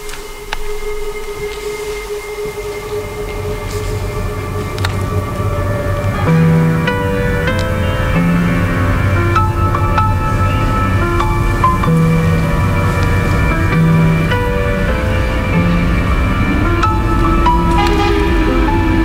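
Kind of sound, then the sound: vehicle, metro train running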